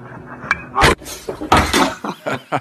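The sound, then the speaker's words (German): A smartphone tips over onto a hard surface: a sharp small click, then a loud clattering knock, followed by a few more scattered knocks and rattles as it settles. “Da ist das Handy umgefallen.”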